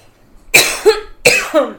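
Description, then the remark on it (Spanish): Two forceful coughs about half a second apart, each a harsh burst trailing into a throaty rasp, heard alone with no talking. “o América Ferrera, porque estabas diciendo que querías que carraspeara.”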